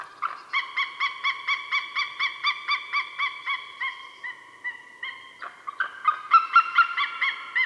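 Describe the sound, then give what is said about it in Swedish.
A very large bird of prey calls in a quick run of about a dozen thin, yelping notes, then a looser burst of higher, excited cries, clear. “Nej, men det är inte ett läte man kanske tänker att det skulle komma från en jättestor rovfågel.”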